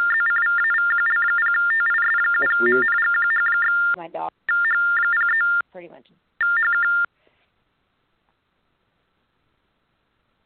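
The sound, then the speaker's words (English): Rapid, insistent electronic alert beeps repeat loudly over a thin, phone-like line, broken by short gaps and brief bits of talking, then cut off into silence partway through. “Yeah, it was some kind of like almost that, emergency that's the thing alert.”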